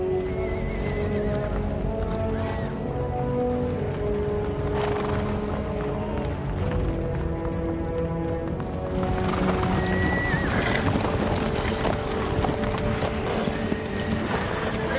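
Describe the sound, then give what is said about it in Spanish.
A large cavalry charge of the riders of Rohan at dawn: many horses neigh and whinny over a steady, dense rumble of galloping hooves, loud and continuous throughout, with no voices. “En el amanecer el horizonte se cubre de jinetes de Rohan.”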